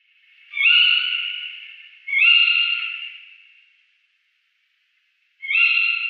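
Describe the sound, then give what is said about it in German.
Three harsh, screechy owl calls from a female, each a rasping, high-pitched shriek that starts abruptly and trails off, with a pause before the third; no one speaks. “Ich spiele einmal den Ruf vom Weibchen ein.”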